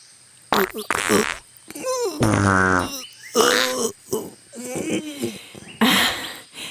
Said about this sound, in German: Äh, na hoppla! Wer furzt denn hier so unhöflich in unsere Geschichte rein?